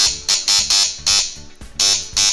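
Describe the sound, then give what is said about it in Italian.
The doorbell of the Samba Radio studio buzzes insistently in a series of loud, harsh electric bursts, about six quick pulses in an uneven rhythm, with no voices over it. “Ecco, è il campanello di Samba Radio che, che ci ricorda è che è il caso di aprire.”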